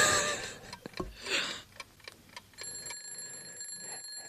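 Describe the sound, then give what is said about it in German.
A quiet alarm clock, its ring turned down to a very low volume, rings with a steady, faint electronic beeping tone over some soft rustling and clicking noises. “Ich habe übrigens, ich weiß nicht, ob dir das gerade aufgefallen ist, ich habe den Wecker ganz leise gemacht, also das Klingeln, weil es gibt Hörer, die hören uns so zu ruhigen Stunden, werden immer müder, schlafen auch gerne ein”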